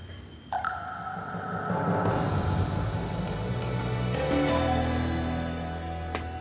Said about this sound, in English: I'm assuming everyone here has watched a TED talk online at one time or another, right? Um, so, what I'm going to do is play this. This is the song from the TED Talks online.